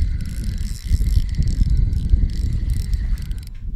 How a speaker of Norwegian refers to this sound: Hva er det du har fått på kroken? Jeg har aldri hørt en snelle som har spola så mye.